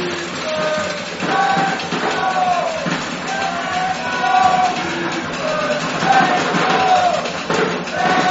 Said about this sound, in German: das Publikum hier in Berlin ist laut, Sie hören es.